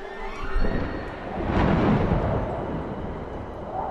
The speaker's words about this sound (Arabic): هبت رياح صفراء وتلبدت السماء بغيوم رماديه حجبت نور الشمس في دقائق لينبثق منها شعاع برق اصاب فطين مباشره ويحوله الى تمثال حجري